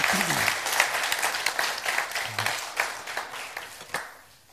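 An audience breaks into steady applause, a dense patter of many hands clapping at once that holds fairly even before thinning out and fading at the end. Faint voices murmur underneath.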